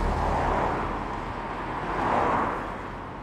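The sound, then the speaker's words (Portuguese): Steady road roar as vehicles speed by, with two rushing swells as cars pass, loud and continuous with no voices. “O barulho é alto e assustador. E tem coisas grandes passando muito rápido de um lado para o outro.”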